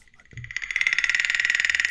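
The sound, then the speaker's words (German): A frog-croak ringtone: a rapid, steady train of bright, pulsing croaks that grows louder and holds at a high, buzzy pitch, following a brief low thump at the start. “Aber da war daneben war einer, der hatte diesen Sound.”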